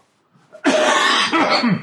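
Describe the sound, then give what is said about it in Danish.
A single harsh, rasping cough bursts out after a brief intake of breath, lasting about a second with a rough, throaty texture. “jeg har en smule host i dag.”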